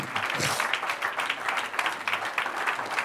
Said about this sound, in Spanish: Como dice Apocalipsis, ven Señor pronto. Un aplauso al Señor.